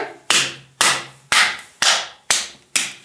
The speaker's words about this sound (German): dann sagt man, es kann auch helfen, die, die Energie sozusagen im Raum zu klären und eine Idee, die man machen kann, ist, man klatscht in alle Ecken, die man im Raum hat. Also man geht in eine Ecke